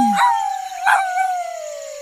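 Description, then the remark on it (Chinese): A wolf howls in one long, sustained mid-pitched note that slowly slides downward, with a couple of brief rough swells early on. No one speaks. “小心大野狼”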